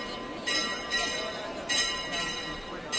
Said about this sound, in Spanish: Sigue acompañándonos la música de las campanas que replican la próxima salida del Paso de Plata.